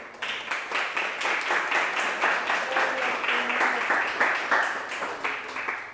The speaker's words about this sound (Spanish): Démosle un aplauso al que vive.